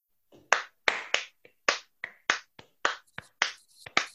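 A brief burst of hand clapping, about a dozen sharp, crisp claps in an uneven rhythm, loud and alone with no talking.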